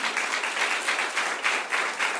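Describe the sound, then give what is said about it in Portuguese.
Sustained audience applause, a dense wash of many hands clapping at a steady loud level with slight rhythmic swells, and no voices above it. “Então dê uma salva de palmas para Jesus, querido.”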